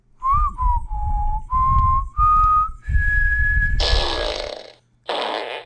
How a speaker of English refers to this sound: I also want to say that Earlier this week, I did shove one of those large boba tea straws up my butt, and I found I was able to whistle the Star Spangled Banner out of my ass.